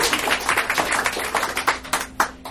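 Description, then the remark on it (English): An audience at a live storytelling event applauds with dense, overlapping hand claps forming a steady, crackling wash, with a few sharper individual claps standing out near the end; a faint low hum runs underneath. “I give yourselves all a big round of applause for coming out and supporting live storytelling.”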